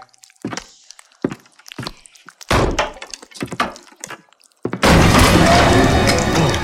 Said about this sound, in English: Kick the door open